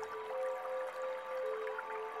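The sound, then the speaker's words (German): Continuous trickling water, like a small stream gently burbling over stones, steady with no voices, holding an even level throughout. “Am Ende hört sie nur noch das Plätschern des Flüsschens und stellt sich vor, wie es lauter und lauter wird.”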